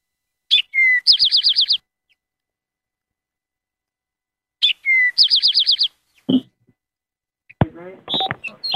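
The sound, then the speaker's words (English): An Eastern Towhee sings twice, each phrase a couple of sharp introductory notes followed by a quick buzzy trill, clear, with a brief voice and some clatter after. “So here goes the Towhee. Eastern Towhee.”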